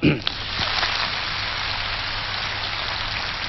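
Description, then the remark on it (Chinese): An audience of school students applauds: dense, steady clapping starts abruptly and keeps an even, hissing texture for several seconds without fading, with no one speaking over it. “所以觉得是有激情有活力，请再掌声告诉我一下。”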